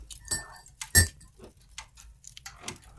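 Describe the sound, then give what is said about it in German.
A log is put into a wood stove: a few metallic knocks and clinks, one loud thump near the middle, and a brief high squeak from the stove door. No one speaks. “Hat gut geknistert, aber dann kam dieses eklige Quietschgeräusch der Tür.”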